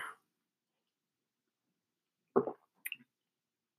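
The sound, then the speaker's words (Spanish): Mostly quiet, then a person takes a drink of water: one soft gulp followed a moment later by a quick wet swallow and a faint click, with no talking. “Voy a volver a tomar agua porque esto sí seca la garganta, ¿eh?”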